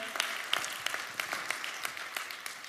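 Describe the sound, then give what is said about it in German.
Steady applause from an audience in Nuremberg at the Symphoniker, a dense wash of many hands clapping with a few sharper individual claps standing out, fairly soft overall and with no voices. “Hey, komm ihr Nürnberger, wir geben mal allen einen riesen Applaus.”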